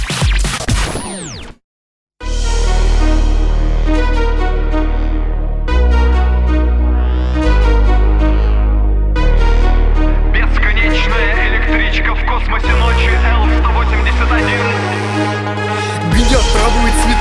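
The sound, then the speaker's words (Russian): A song's instrumental intro plays on the radio, loud and full, with steady bass, layered sustained chords and a busy upper melody, after a brief sweep and a momentary drop to silence at the start. “Ну тогда для затравки мы сейчас и поставим …. … на Кальян ФМ.”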